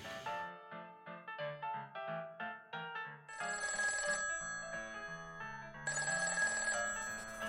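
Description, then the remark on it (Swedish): A telephone rings with a melodic electronic ringtone: a quick run of short, bright notes, then sustained, buzzy chords that repeat. It's loud, with no voices. “Det kom privata och ringde alla.”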